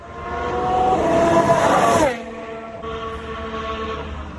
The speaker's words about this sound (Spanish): Así sonaba el coche de Carlos Sainz en el circuito de Fiorano.